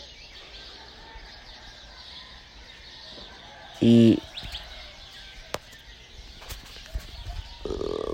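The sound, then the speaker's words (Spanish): A steady chorus of many kinds of birds chirping in the quiet before dawn at a natural sunrise, with a single brief word spoken midway and a few faint clicks and rustles. “pájaros de muchos tipos. Antes de que amanezca es cuando ellos se expresan.”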